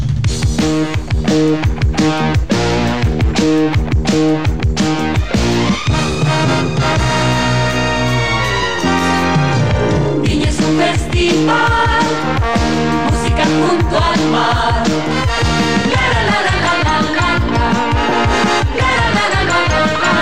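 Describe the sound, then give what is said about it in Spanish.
A loud, full orchestral theme with bright brass fanfares and driving percussion plays alone for about twenty seconds, building and changing sections like a festive broadcast jingle. “Nuestro Festival de la Canción de Viña del Mar y el Festival de la Canción de Eurovisión también han tenido cortinas que los han identificado”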